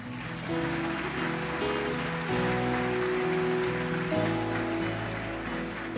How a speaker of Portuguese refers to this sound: Aplaudir o Senhor.